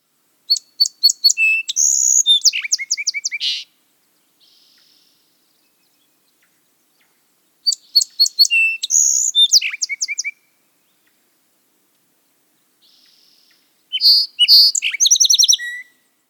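A Song Sparrow sings three times, each song opening with a few sharp introductory notes that run into buzzy phrases and quick trills, separated by brief silences, clear with no voices.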